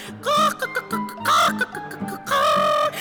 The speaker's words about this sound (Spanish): había logrado criar una gallina en mi casa. mi gallina se llamaba Lolita. Era blanca, con lunares negros, una cruza. Se subía a los muebles, andaba por todos lados. Mi gallina bailaba.